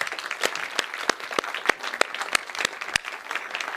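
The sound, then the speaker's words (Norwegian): An audience applauds the worship team and dancers steadily, a dense patter of many hands with sharper individual claps standing out at irregular moments, sustained at a moderate level throughout with no voices heard. “Gi dem en applaus, dere.”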